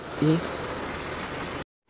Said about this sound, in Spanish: Igual y pueden estar escuchando, bueno, están escuchando ruido de fondo y es que Estoy otra vez aquí adentro del carro grabando, ya está haciendo una costumbre de grabar aquí adentro de, mi carro. Me agarró la lluvia